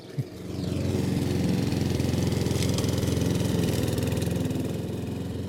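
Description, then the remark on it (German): A lawn mower engine drones steadily and fairly loudly, a continuous buzzing rumble that holds constant after a brief thump at the start, with no voices. “Das mit dem Rasenmäher viel Vergnügen.”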